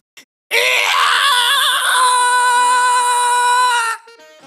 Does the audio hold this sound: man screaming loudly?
yes